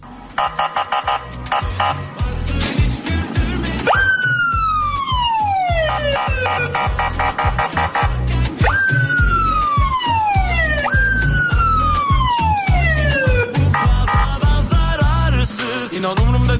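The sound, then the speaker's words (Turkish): An emergency vehicle siren sound effect wails in three long falling sweeps, each dropping from a high pitch, over a steady rhythmic beat underneath. No one speaks. “Acemlere bir siren alabilir miyiz?”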